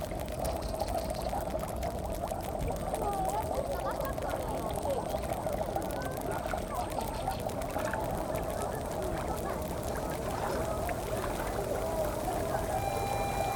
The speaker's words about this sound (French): J'enregistre les bulles des sources thermales.